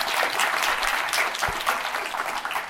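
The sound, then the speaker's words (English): Steady applause from an audience at an evening event, welcoming a guest, a dense wash of many hands clapping at a fairly even loudness for the whole few seconds, with no voices rising above it. “We'll, maybe let's just welcome you again with some applause.”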